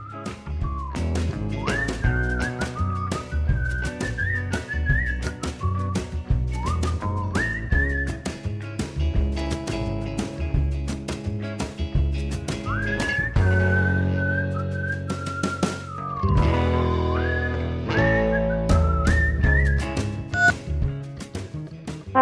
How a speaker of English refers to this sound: A great song that has whistling in it is … by …, a Chicago band.